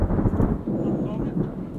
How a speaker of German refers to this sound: Und vor diesen Anlegern, kleinen Stegen am Regnitzufer, direkt vor dem Forchheimer Marineheim, stehen sie schon, trotz aufziehenden Gewitters.